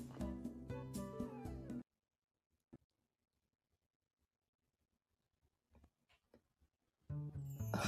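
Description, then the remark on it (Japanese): A loud, dense sound cuts out abruptly, leaving about five seconds of near silence broken only by faint scattered clicks, before the audio snaps back in at full volume. “途中でまた今日と途切れましたね”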